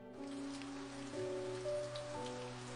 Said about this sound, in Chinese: 就在这时，自己的窗外。响起了噼里啪啦的雨声。